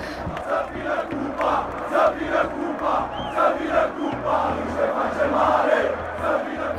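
A large crowd of football supporters chants and sings together in a stadium, a dense, echoing roar of many voices rising and falling in steady rhythmic swells.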